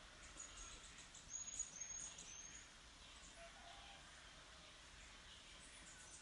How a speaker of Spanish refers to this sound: Sí, estoy en Betel, en la montaña del silencio. Quizás escuches a lo lejos algunos pajaritos.